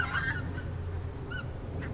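A flock of cranes flying away calls, a few trumpeting, honk-like cries rising over a steady low rumble, with brief gaps between the calls.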